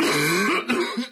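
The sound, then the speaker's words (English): A raspy cough: a rough voiced hack followed by two short, harsh bursts, heard alone with no talking. “Robitussin's powerful dual action formula relieves even the toughest coughs wet, dry and hacking.”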